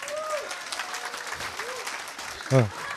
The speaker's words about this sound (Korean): 박수 좀 쳐줘요.